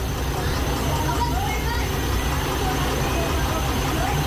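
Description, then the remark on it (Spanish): A heavy water tanker truck carrying water rumbles steadily in Barrio Nuevo La Herradura, Santiago, a dense low-frequency drone with constant road and mechanical noise and no pauses. “es un camión cargado de agua y me dicen lo siguiente.”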